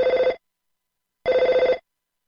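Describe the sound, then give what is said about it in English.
A telephone rings twice, each ring a short burst of rapid, trilling bell-like pulses separated by a brief silence, loud with no voices present. “thing that I almost interrupted you with, if I had a phone noise, it, it, would be the like, Hey,”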